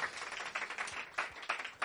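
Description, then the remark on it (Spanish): An audience breaks into sustained applause for a technician, a dense crackle of many hands clapping at once with brief swells in intensity, steady throughout with no talking over it. “técnico de, de un aplauso fuerte para él.”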